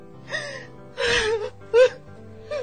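A woman sobs heavily in a few gasping, whimpering bursts, one breathy wail-like cry followed by a sharper, louder sob, with no talking.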